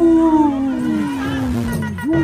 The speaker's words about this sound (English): Howling for Wolves, protecting wolves for future generations. Howl. Howl.